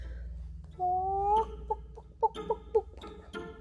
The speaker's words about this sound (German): Aber auf einmal gackerte die Henne.